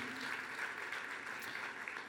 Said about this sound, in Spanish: Gloria a Dios. Fuerte, fuerte ese aplauso de alabanza para el Señor.